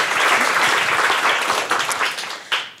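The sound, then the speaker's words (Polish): An audience gives a guest a big round of applause, a dense wash of many hands clapping at once that holds strong and then begins to taper off near the end, with no voices over it. “Proszę was o gromkie brawa.”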